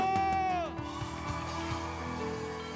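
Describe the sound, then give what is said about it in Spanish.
An audience erupts in a loud, sustained shout of joy, many voices whooping and yelling together, with one high cry rising and then sliding down over the roar of the crowd. “Y la iglesia de Dios da un grito de júbilo.”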